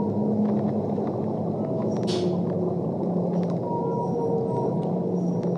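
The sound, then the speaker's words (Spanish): A whale calls underwater as it moves away, with drawn-out, wavering tones that slide in pitch over a steady, dense wash of ocean noise, moderately loud, with one brief brighter squeal partway through. “Comienzo a subir lentamente a la superficie ballena se va alejando y los delfines me acompañan hasta ver esa luz en la superficie.”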